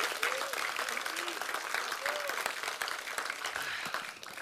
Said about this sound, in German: Gebt ihm mal einen fetten Applaus.